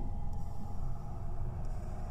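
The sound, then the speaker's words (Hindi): A steady, low engine rumble of a failing car driving at night on a road through a forest, droning continuously at moderate volume with a dense, rough low-end texture and no voices. “लोगों ने कहा था नई गाड़ी ले लो लेकिन कंजूसी की वजह से वो टालता रहा और आज इस हालत में फंस गया वो किसी तरह गाड़ी चला रहा था”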